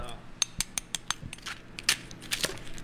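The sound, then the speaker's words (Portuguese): A knife cuts through a large pork crackling roll (torresmo de rolo) in a rapid series of sharp, brittle cracks and snaps, fairly loud, with faint background noise between the crunches. “Olha só o barulhinho, ó, ó escutem só.”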